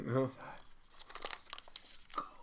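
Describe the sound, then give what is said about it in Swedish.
Crinkly plastic package wrapper being pulled open, a run of sharp rustles and tearing crackles over a couple of seconds, after a brief voiced sound at the start. “Det är ju väldigt populärt på Youtube att man öppnar Just det, paket. Det prasslar långsamt ja.”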